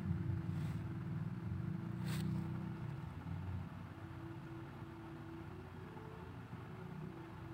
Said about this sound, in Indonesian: itu ada motor tuh tadi, sorry ya. iya. ya. Emang di, di sini dekat sirkuit tuh.